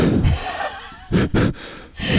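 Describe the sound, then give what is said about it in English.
A person imitates the heavy, panting breaths of people dancing in headphones at a silent party, a series of loud huffs and gasps in uneven bursts with brief pauses between them. “the silence and then the heavy breathing.”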